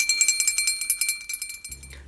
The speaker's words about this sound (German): Jetzt kommt ein Jingle, der so tut, als hätten wir einen Gast, aber in Wirklichkeit klingeln wir jetzt irgendwo.